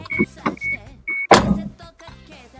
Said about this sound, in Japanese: 音すげえでかいななんか車の音がピーピー言ってますけどうわうるさいうるさいうるさうるさいうるさい